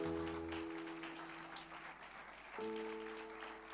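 An audience applauds in praise of the Lord during a church service, a dense wash of clapping that holds for the whole stretch, with sustained organ or keyboard chords humming underneath and shifting to a new chord partway through.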